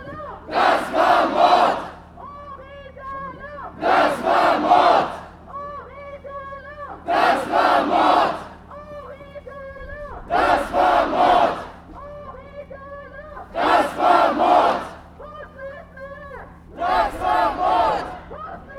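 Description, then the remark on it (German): A large crowd at a memorial demonstration in Dessau chants a slogan in unison, loud rhythmic bursts of voices repeating about every three seconds with brief pauses between, steady throughout. “Das ist die größte Gedenkdemonstration, die Dessau je erlebt hat. Und das soll man auch mal hören.”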